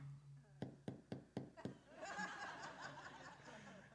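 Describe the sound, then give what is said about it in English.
Five soft, evenly spaced knocks on a door in quick succession, demonstrating a quiet knock meant to let mom know you're home late without waking dad, followed by people laughing and murmuring. “Uh, you come home late at night, you're past your curfew, you don't want to wake dad up, but you want to let mom know you're home. I call this the mom knock.”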